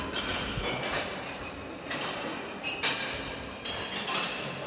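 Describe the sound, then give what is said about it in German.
Footsteps cross loose metal plates bearing faces, part of an artist's installation in an exhibition, each step setting off a sharp, ringing metallic clank. The clanks come at an uneven pace over a steady background rumble, with no one talking. “Wenn viele Leute hier drüber gehen, wird es ganz schön laut.”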